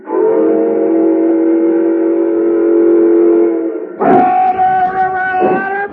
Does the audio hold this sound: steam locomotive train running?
yes